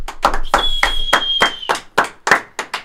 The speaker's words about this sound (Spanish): Un aplauso, por favor